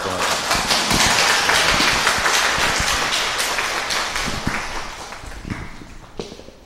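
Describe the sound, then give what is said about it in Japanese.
Steady audience applause of many hands clapping in a dense, continuous patter that stays loud for several seconds, then gradually thins and fades toward the end. “ありがとうございました、えー、拍手を持って”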